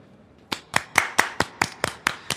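Sharp, evenly spaced hand claps, about nine in quick succession, each a crisp burst with a short tail, beginning after a brief quiet moment. No voices are heard.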